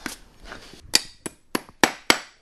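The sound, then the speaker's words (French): A farrier drives a nail into the horn wall of a horse's hoof while shoeing: about seven sharp metallic taps, coming faster toward the end, dull at first and ringing brighter as the nail is about to come out. No voices. “C'est-à-dire quand on commence à, planter le clou, il fait un bruit sourd et, et au moment où il va sortir, le bruit s'éclaircit.”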